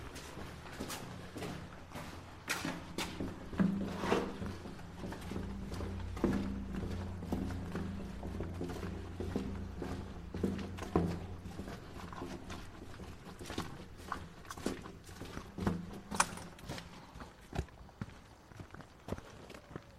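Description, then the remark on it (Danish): Steady footsteps walk across a hard floor toward a double caponier, a very narrow passage in the Vestvolden fortification, each step a sharp tap in an even rhythm over about twenty seconds, with a low rumble of background noise and no talking. “Vi uh, skulle faktisk lige forsvinde ned i selveste forsvarsværk nu, vi går hen imod det, som hedder en dobbelt kaponere, eller en meget, meget tynd gang, hvor der ikke var plads til mand og hest.”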